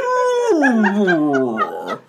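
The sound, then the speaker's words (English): A voice mimics a sick humpback whale with a single long, mournful moan that slides downward and wavers, lasting about two seconds, fairly loud with nothing else around it. “That bass noodling at the beginning sounds like a sick humpback whale.”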